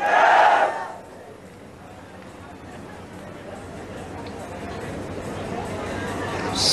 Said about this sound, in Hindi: क्या विश्वास जिनको है उनके मुंह से आवाज निकलेगी यस